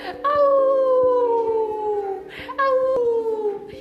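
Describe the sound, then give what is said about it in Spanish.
Two long, loud wolf-like howls, each sliding slowly downward in pitch, the second starting after a brief break; a human voice seems to be imitating the howling. “Y el lobo, mientras, mientras aullaba,”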